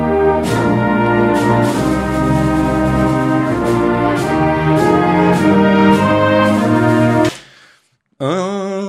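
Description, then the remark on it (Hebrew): The stately Canadian national anthem played by a full orchestra, loud sustained chords moving at a steady, solemn pace, stopping abruptly before a brief different sound at the very end. “אם אתם מכירים את, ההמנון הקנדי, אה, המנון ידוע כי מנצחים די הרבה באולימפיאדה הקנדים, נשמע ככה.”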